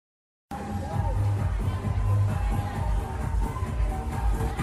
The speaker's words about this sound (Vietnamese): 20 giờ trên phố Tạ Hiện, quận Hoàn Kiếm, Hà Nội, ồn ào tấp nập bởi tiếng nhạc sập sình, tiếng chào mời khách từ các hàng quán đan vào nhau không ngớt.